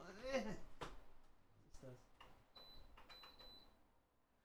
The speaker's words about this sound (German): Warte, ich muss ganz kurz mal meinen Ventilator pushen.